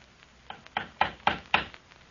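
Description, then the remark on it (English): A series of five firm knocks by a village fisher boy on the door of the Governor's house, evenly spaced and growing slightly louder, sharp, with no voices. “Someone's at the door Rosa.”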